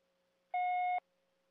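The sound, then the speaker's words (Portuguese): A single steady electronic beep, about half a second long, sounds clearly over a faint constant line hum: the voicemail tone after a phone call to a mayor is forwarded to voicemail. “Sua chamada está sendo encaminhada para. Vamos ver se tem a mensagem da prefeita. Vamos ver. Essa após o sinal.”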